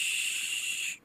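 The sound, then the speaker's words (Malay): A voice makes one steady hissing 'shhh' for about a second, imitating the sound of a stick swept through water, then stops abruptly. No other sounds. “macam air korang ambil kayu korang serit dekat air kan bunyi macam tu”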